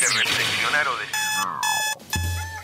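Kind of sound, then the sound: household object, alarm clock ringing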